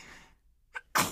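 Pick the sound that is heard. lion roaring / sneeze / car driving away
sneeze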